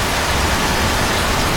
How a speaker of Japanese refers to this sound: 晴れのち雨雨のち大雨大雨のちもっと大雨もっと大雨のちもっともっともっと大雨